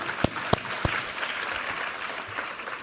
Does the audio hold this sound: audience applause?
yes